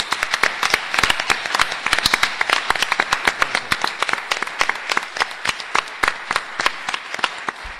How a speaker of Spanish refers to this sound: Yo les propongo, eh, vale la pena aplaudirle a un astrónomo.